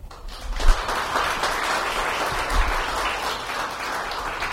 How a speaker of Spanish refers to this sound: Dese un aplauso.